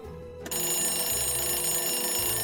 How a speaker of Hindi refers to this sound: अब सब कुछ बहुत अच्छे से बीत रहा था करीब दो महीने बाद फिर ये अलार्म बज उठा